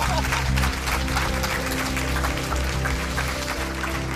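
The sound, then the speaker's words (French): A large crowd claps loudly and steadily for several seconds, a dense, continuous patter of many hands, with a low sustained hum underneath, applauding the Lord after a testimony. “Waouh est-ce qu'on peut applaudir plus fort le Seigneur quand même C'est incroyable”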